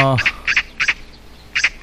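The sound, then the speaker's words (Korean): A magpie gives harsh, raspy calls in short doubled bursts, four of them spaced unevenly across a couple of seconds, loud, after a brief tonal sound at the start. “까치가 오네요.”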